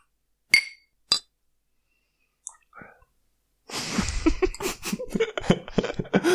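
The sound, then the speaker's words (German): Two bright, ringing clinks of glasses of beer touching in a toast, about half a second apart, followed after a short pause by a stretch of busy, breathy noise. “Oh, ich sag einfach Prost”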